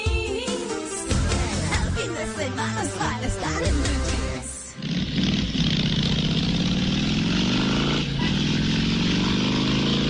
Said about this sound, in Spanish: a las 8 y 15 de la mañana, una cita con Juanca, así como lo oyen, rugiendo motores.